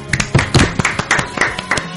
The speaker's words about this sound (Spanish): Muy bien, aplauso muy, muy bonito. Muy improvisado.